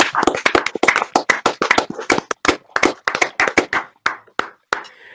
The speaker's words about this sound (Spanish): yo quiero que lo reciban con un fuerte aplauso, ¿ok?